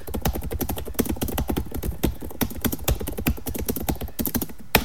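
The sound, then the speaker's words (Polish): Rapid, steady typing into a notepad program on a laptop keyboard, demonstrating how noisy its keys are, with dense clicking keystrokes in quick irregular bursts and a slightly louder key press near the end. No talking. “Ja mogę zademonstrować, jak wygląda pisanie na tej klawiaturze.”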